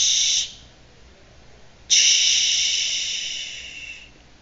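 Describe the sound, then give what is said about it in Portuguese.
A voice imitates the soft landing of three golden hairs, pulled from a child's head and thrown onto floor tiles, with two hissing "tsh" sounds, a short one followed by a longer, fading one, bright and breathy. “a velha arrancou bem rápido três fios da linda cabeça da criança e jogou nos ladrilhos. Eles fizeram um barulhinho. Tsh, tsh,”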